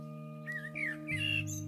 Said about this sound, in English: Today, with campus vacant, the only creatures here are the birds. The quiet of the space is a reminder of what happens when people are taken out of the equation.